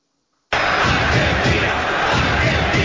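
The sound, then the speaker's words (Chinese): A large crowd of fans shouts slogans as the Argentina national football team's bus sets off on its World Cup victory parade, loud, continuous shouting and chanting, a dense roar of many voices that starts abruptly and holds steady without a break. “喊口号，巴士缓缓出发。”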